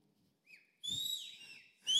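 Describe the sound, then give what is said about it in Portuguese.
A person tries to whistle, producing a few short, breathy whistled tones in separate attempts, with the last burst the loudest and shrillest. “Não sei assobiar, alguém sabe aí?”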